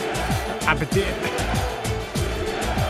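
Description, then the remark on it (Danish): A loud alarm jingle plays continuously, built on a steady, fast repeating beat with dense layered tones and a voice-like chant woven through it. “Kom, den her alarm. Vi skal snakke om Evander og Galatasaray. Der er tyrker-alarm, ikke? Prøv at høre.”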